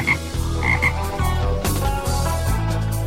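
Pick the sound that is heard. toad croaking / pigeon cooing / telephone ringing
toad croaking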